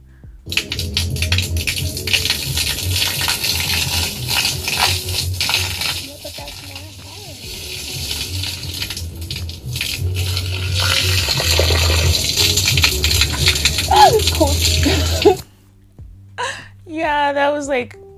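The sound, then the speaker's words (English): An outdoor shower in a common area runs in a steady hiss of spraying water for about fifteen seconds while a party goes on, with voices and party chatter underneath, then cuts off as a person's voice comes through. “So this is like a little clip of me trying to figure out the outdoor shower while there's like a party going on.”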